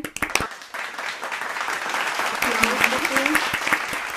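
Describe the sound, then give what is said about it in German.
A crowd breaks into applause, starting with a few sharp claps and swelling into steady, dense clapping with faint voices and cheers mixed underneath. “ist ein Applaus ja, wert, einmal.”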